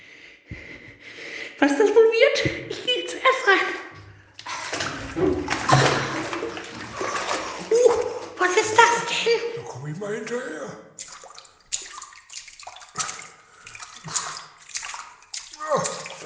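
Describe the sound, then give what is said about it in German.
Water sloshes and splashes in a pool in a steady, irregular wash, with voices and faint echoey chatter mixed in. “angenehm, das Wasser.”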